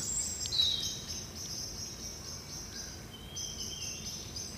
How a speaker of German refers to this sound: Und jetzt hört ihr noch ein bisschen für die Natur das Zwitschern bei Alexi.